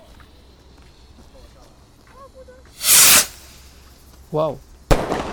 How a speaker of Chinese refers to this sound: 那现在呢，来放一个比较小只的火箭炮，它也是火箭炮哦。